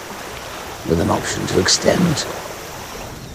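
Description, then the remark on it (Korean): A steady wash of seawater waves hisses in the background throughout, with birds crying, and a man's voice speaking briefly over it in the middle, at the close of the story Storm Boy. “이 배경에 바닷물 소리와 새들이 끼룩 끼룩끼룩하는 소리와 함께 아 정말 감동스럽게 이 Storm Boy를 마무리하게 되었습니다.”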